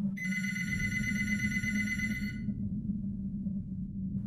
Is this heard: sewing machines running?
no